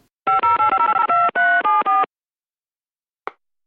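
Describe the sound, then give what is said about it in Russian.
A telephone number in Dolgoprudny, Moscow Oblast, Russia, being dialed: a quick, even run of about a dozen touch-tone beeps, clear, followed by silence and a single brief click. “Приостановимся на некоторое время в Московской области, в городе Долгопрудный, куда я сейчас буду звонить”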